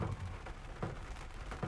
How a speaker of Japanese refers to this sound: 雨ボツボツ音入ってますね